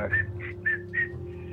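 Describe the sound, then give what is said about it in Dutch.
A person whistles a short, jaunty tune of four quick rising notes, fairly clear, over a low steady hum, imitating a man whistling as he walked down a ship's gangplank. “Maar ik zag de man uh, de loopplank aflopen, fluitend zo, van...”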